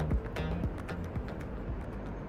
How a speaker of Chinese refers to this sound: 你现在听到的声音是正带着你们一起走进隧道。